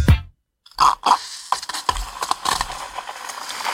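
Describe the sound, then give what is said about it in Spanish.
A chilled soda siphon is squirted in a radio studio: a few short pressurized hisses and mechanical clicks, then a longer, uneven fizzing spray that runs to the end. No one speaks. “Pasa que, bueno, acá dentro de un estudio de radio te imaginarás que no es el lugar eh, ideal para accionar un sifón de soda con una mano, pero bueno.”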